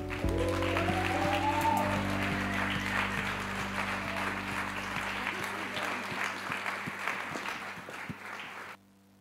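Sustained audience applause in a hall welcoming a speaker, with dense, crackling clapping that holds steady for several seconds, a low steady hum beneath it, before thinning out and stopping abruptly near the end.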